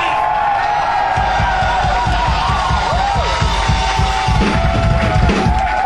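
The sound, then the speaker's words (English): A loud concert crowd cheers and whoops continuously, with rising and falling shouts over a steady roar and a fast, rhythmic thumping of claps or stomps underneath. “Make some fucking noise”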